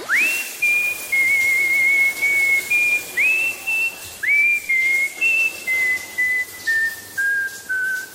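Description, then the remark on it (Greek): A person whistles a melodic tune alone, clear, with sliding notes rising into a series of steady pitched phrases that step gradually downward over several seconds. “Όταν κάνω ντου, σφυρίζω και κάνω πολύ φασαρία, δυστυχώ.”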